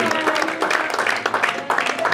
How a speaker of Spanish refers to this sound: Den un aplauso al Señor en esta noche.